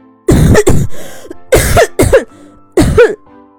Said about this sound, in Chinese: 狮子兔又来到小猴子米花家门口，可这回呢，他还没靠近，就听到米花剧烈的咳嗽声。